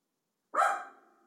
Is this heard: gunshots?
no